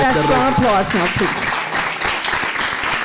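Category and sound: crowd, audience applauding loudly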